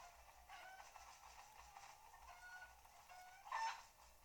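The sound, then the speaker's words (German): A rooster clucks in a few short, scattered bursts, fairly quiet, with a slightly louder cluck near the end and no one talking. “Dieses Hühnchen tut mir ein bisschen leid. Wobei es ein Hahn ist.”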